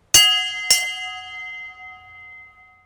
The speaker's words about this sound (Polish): Niedzielny dzwon.